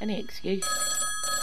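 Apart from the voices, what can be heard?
telephone ringing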